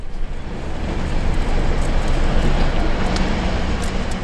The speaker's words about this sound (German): Die Betonteile werden im Steinbrecher zu kleinem Granulat verarbeitet und nach Größe sortiert.